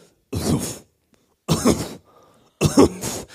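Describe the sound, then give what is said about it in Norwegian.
A voice imitates kobolds coughing from coriander smoke as they draw back: three rough, hacking bursts spaced about a second apart, fairly loud, with quiet gaps between them. “Og koboldene trekker seg bakover, hostende, hostende.”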